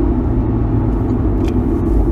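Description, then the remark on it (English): A car breaking down: its engine gives a loud, steady low rumble for a couple of seconds, with no voices present. “Oh, that wasn't good. Car broken down, but at least...”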